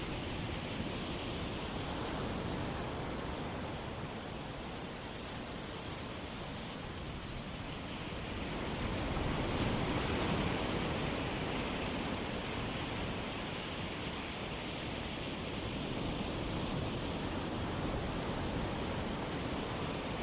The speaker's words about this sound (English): Let's just lie right here for a minute and listen to the surf.